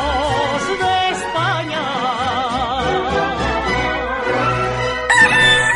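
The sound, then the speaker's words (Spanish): A rooster crows loudly, a long wavering call that rises and falls over several seconds against a steady low background hum, with no talking. “Madre mía, el gallo, qué impertinente.”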